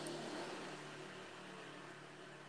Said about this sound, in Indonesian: eh itu mobil siapa sih nggak tahu tetangga gue nggak ada ahlak semua nih kenapa sih tetangga gue nggak ada ahlak serius jam segini pada nah. masih keliaran gitu